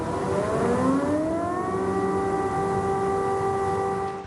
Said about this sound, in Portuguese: As sirenes da cidade tocaram em alerta de ataque aéreo.